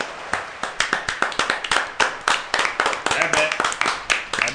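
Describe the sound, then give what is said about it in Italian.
A crowd applauds in the large reverberant hall of the Palazzetto Ramone Speranza arena at the Sylvester 2013 awards, after the best athlete award is announced: dense overlapping claps with sharp individual hand strikes standing out, steady and fairly loud throughout, with faint voices mixed into the din. “avete eh, sentito il pubblico in sala del palazzetto Ramone Speranza che ha rumoreggiato fin da subito su tutta l'assegnazione di Smith Rogers al premio miglior atleta.”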